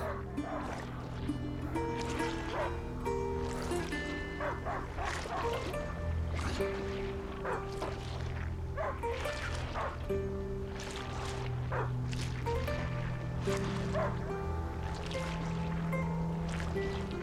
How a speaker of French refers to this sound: Il n'aboie plus. Il a dû le trouver.